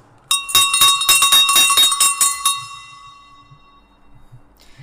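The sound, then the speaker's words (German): A classic sheet-metal livestock bell, on display in an exhibition, clanks in a quick, irregular burst of rattling strikes for about two seconds, bright, then its tinny ring fades out into quiet. “eine klassische Blechschelle.”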